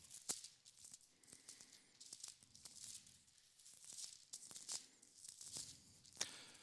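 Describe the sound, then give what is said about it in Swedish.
Thin Bible pages being flipped and rustled in quick, irregular bursts to find the First Epistle of John, soft, with crisp crinkling swishes and no talking. “Eh, första Johannesbrevet som sagt ska vi börja i, så kan jag bläddra dit själv också.”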